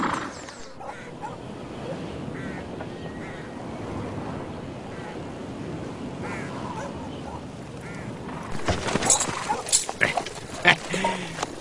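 A horse snorts and neighs in a cluster of loud, rough bursts near the end, after several seconds of steady, rustling outdoor background noise.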